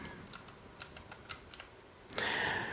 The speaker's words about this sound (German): Hoppla, Dann, habe ich meine Tastaturfarbe umgestellt. Jetzt ist es so schön gelb. Äh, egal. Äh, ja. Ja, aus Versehen die falsche Tastaturkombination erwischt.